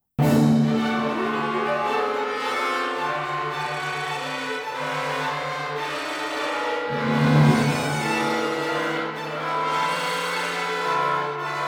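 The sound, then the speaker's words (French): Orchestral flutes play a buzzing flutter-tongued (Flatterzunge) tremolo depicting a frightened flock of sheep in Strauss's Don Quixote, a dense, continuous rattle over sustained low orchestra tones, swelling briefly midway with no voices. “Don Quichotte, mais qui sont en réalité un simple troupeau de moutons effrayés que Strauss dépeint en faisant jouer aux flûtes des flatterzung, une technique qui consiste à créer un trémolo, un roulement, en faisant vibrer sa langue très rapidement.”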